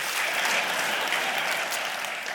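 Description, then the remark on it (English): An audience claps together in a dense, steady wash of applause from many hands, holding an even, fairly loud level throughout with no voices rising above it. “You can clap to that if you want.”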